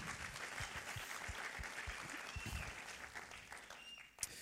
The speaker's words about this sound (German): Du machst einen super Job, ey. Riesen Applaus, merci.